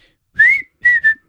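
A short whistled phrase of three clear notes: a long, slightly rising tone, a pause, then two quicker notes close in pitch. Bright and fairly loud, with no talking.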